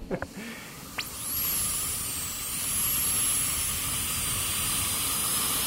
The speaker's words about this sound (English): That's a very cool sound. The tool that we use to clean the tooth is called a handpiece. Um, some people call it a drill, and it makes um, a real high pitched whining noise, and it also squirts water to cool it down so that we're not hurting any